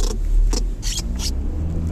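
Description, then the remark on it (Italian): A police car drives past with a steady low engine rumble, joined by several short hissing bursts of road noise over about two seconds, with no voices. “scusate ma c'era la polizia”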